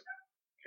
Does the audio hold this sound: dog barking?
yes